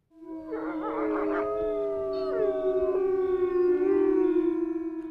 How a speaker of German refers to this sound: Unverkennbar Wölfe.